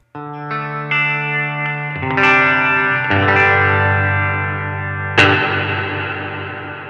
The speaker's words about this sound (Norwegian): Så det er da emuleringa av lyden som går inn i en plate, en metallplate, eh, stålplate, og så blir fanga opp i andre enden.